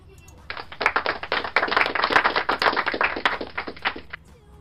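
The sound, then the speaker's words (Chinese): A burst of clapping from several hands, rapid and irregular, running for about four seconds at a steady, fairly loud level before cutting off. “来个掌声。”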